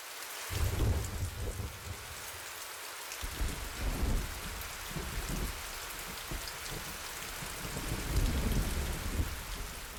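Heavy rain pours steadily, with deep rolls of thunder rumbling through it, swelling early on and again near the end. No voices are heard.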